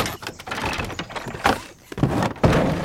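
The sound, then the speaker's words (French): A heavy back door is worked open with a series of dull thumps and rough scraping, the loudest bangs near the end, fairly loud with no voices. “Reste à ouvrir la lourde porte du fond.”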